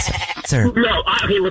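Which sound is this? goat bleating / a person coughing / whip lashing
goat bleating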